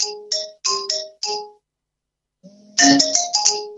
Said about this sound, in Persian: ببخشید این تلفن